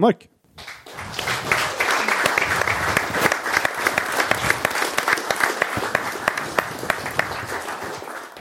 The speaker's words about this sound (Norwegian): Så da vil jeg at alle kommer med en stor applaus